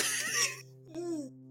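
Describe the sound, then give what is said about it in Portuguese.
A single sneeze: a breathy, hissing burst followed by a sharp release and a brief voiced tail, heard over a steady low electrical hum. “Hum, saúde.”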